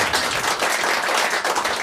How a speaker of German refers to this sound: Klatscht mal für ihn.